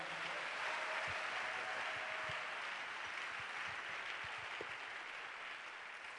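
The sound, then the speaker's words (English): An audience applauds together as a clap offering, a steady, dense wash of clapping that holds for about six seconds at an even, fairly loud level, with no voices rising above it. “a better clap offering.”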